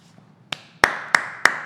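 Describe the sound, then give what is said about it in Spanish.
Four sharp hand claps, the first lighter, then three louder evenly spaced ones at a steady rhythm, with no voices. “No, no, no, no, no, no, no, no es para aplaudir.”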